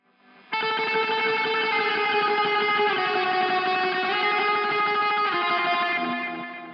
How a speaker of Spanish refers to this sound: este, eco, pero aparte este meterle muy rápido a la púa para meter una especie de, arreglo melódico que no es un solo